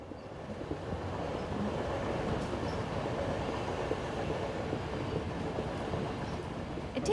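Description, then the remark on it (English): A passenger train travelling from London to Edinburgh rolls steadily along the rails, a loud, continuous rumble with dense rattling texture that holds constant throughout, with no voices. “takes around four and a half hours to travel from London to Edinburgh on the train, as I did in the middle of August, the middle of the fringe.”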